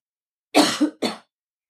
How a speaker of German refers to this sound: Ich muss mal gerade husten. Ich ja. habe Pollen in den Hals bekommen.